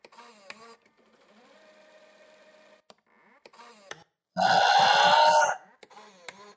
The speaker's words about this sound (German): Musst, also mal, mal, ob man, ob man den Rülpser, den will ich jetzt nochmal hören, vielleicht nochmal dahin schneiden.